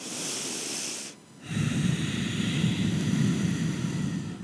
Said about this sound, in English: As you exhale, Imagine there's a slight constrict on the back of your throat, almost as if you were to gargle. And so it comes out like a loud whisper.